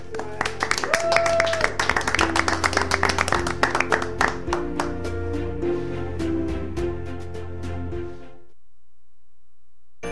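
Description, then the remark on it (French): A studio audience breaks into sustained applause, dense clapping with a few louder individual claps, over a bed of music, then everything cuts to silence near the end. “Alors, demain d'applaudissements pour tous, puis merci beaucoup d'avoir été là.”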